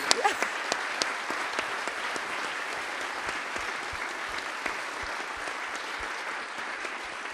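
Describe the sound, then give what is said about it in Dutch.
Sustained applause from an audience for a guest: a dense steady wash of many hands clapping, with a few sharper individual claps standing out, fairly loud and even throughout. “En, eh, en we gaan je een applaus geven, dames en heren.”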